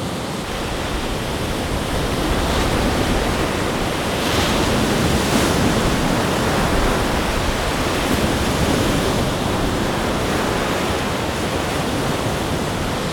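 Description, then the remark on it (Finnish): A steady, dense wash of wind and lapping lake water fills the scene at a shoreline of Lake Päijänne, with a faint rustle of leaves mixed in and no voices. “Tuuli pitää oman äänen, vesi toisen äänen ja sitten lehtiä kahisee.”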